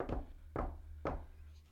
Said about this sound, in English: Now, if we touch the table we're sitting at, you can still hear it through the mic, but it sounds more like this.